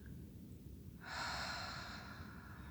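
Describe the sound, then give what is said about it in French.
A deep, airy breath drawn from the belly, inhaling and exhaling, starting after a second of quiet and rushing steadily to the end, over a constant low background rumble. No one speaks. “Nous respirons profondément depuis le ventre. J'inspire et j'expire.”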